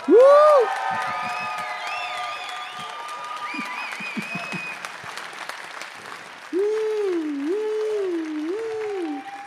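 An audience bursts into loud, sustained applause, clapping steadily for several seconds while piercing whistles and whoops rise and fall over the top, with a long wavering whistle near the end.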